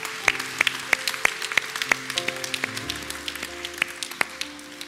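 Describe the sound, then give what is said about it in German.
An audience applauds for Jesus, clapping in a steady, even rhythm, about three claps per second, over sustained keyboard chords that shift beneath them. No one speaks. “Gib doch mal jetzt einen Applaus, weil an Jesus.”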